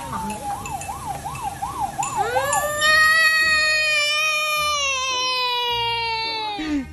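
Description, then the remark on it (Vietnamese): A toy siren warbles rapidly for a couple of seconds, then shifts into a long, steady electronic wail with bright harmonics, fairly loud, with faint background noise. “tôi thấy ở ngoài này có cả bộ xe cảnh sát với cả là bộ xe à, cứu hỏa nữa mà tôi phải ra mua nó thêm đủ đủ bộ mới được”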